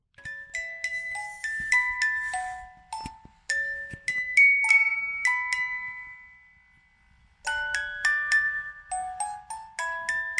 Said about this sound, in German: Ähm, die Spieluhr hingegen ist nicht besonders alt und klingt auch nicht genauso wie meine Geschichte, sondern sie klingt so.